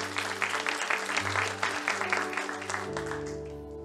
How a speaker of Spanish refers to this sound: Y me gustaría que le diéramos un fuerte aplauso a todos ellos ahí en casa. Que Dios les bendiga.